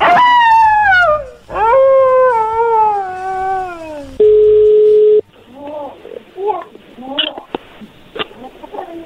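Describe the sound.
Two long, loud wolf howls glide slowly downward one after another, followed by a steady electronic tone and then a brief stretch of muffled voices and clatter.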